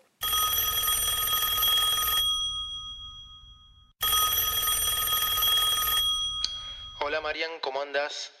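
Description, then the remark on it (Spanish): An old-style telephone bell rings loudly in two long bursts, about two seconds each with a short pause between, as a call from a friend comes in, then a man's voice begins speaking right after the second ring fades. “Estábamos tranquilos cuando de repente recibí el llamado”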